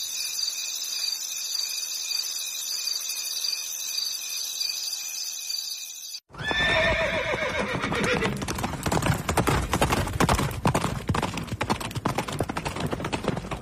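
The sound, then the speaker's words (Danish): Steady cricket chirring gives way abruptly to loud, rapid hoofbeats of horses galloping close by, with a sharp horse whinny near the start of the pounding that continues to the end. “Det er så nederen, når Swift ikke har bundet hestene, og så drøner Dick Turpin bare forbi.”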